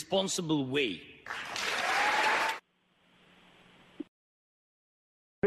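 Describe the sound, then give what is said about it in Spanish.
A voice speaks briefly, then a loud burst of dense clapping applause for Zelensky at the Capitol rises for just over a second before cutting off abruptly into faint hiss. “y los aplausos a Zelensky,”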